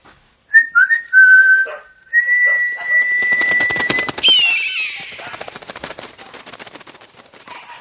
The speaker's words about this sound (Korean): 크게 휘파람을 불어 매를 불러보았다. 갇혀있는 매를 부르고 소리칠 수 있는 시간도 얼마 남지 않아 초조했다.